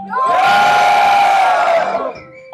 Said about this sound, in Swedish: Och eh, jag ska göra det här eh, som jag inte brukar göra, att be publiken eh, vråla lite. Är ni med Göteborg?